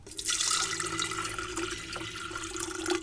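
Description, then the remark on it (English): Steady water pours into a metal kettle for a few seconds, a continuous splashing rush with a rising resonant tone as it fills, fairly loud with no voices. “You pour the water into the kettle.”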